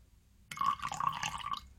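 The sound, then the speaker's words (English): Coffee is poured into a cup, a steady trickle that starts abruptly after a brief silence and runs for just over a second before stopping. “Uh, that's me pouring some coffee.”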